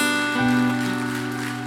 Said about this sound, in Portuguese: Alguém pode aplaudir ao Senhor bem forte por essa palavra.